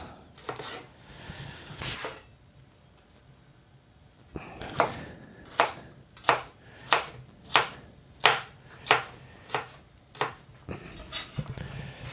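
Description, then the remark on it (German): A knife cuts a bell pepper into strips and then into cubes: a few scattered cuts, a short pause, then a steady run of about a dozen crisp, evenly spaced chops. No one speaks. “So, ich schneide die Paprika erstmal in Streifen.”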